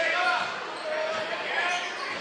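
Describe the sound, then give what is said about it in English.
A basketball being dribbled on a court during a game involving Good Hope, as a player dribbles right, goes baseline, makes a spin move and misses; the bounces blend into a steady wash of crowd noise, with thin high squeaks and murmuring voices running throughout. “dribbles right, goes baseline, spin move, missed it”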